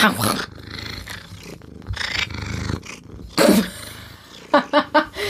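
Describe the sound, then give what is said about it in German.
A voice imitates a cat's purr, a low rumbling growl lasting several seconds, followed by a few short, louder voiced bursts. “Man hört wahrscheinlich nur noch dich schnurren”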